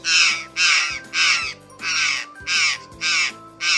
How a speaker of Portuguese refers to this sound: Nossa, Deixa eu ouvir a gralha de novo.